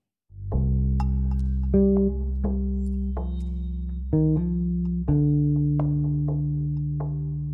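Music plays on its own: sustained, buzzy synth-like chords with a deep bass shift every second or so, forming a steady, loud intro passage with no voices.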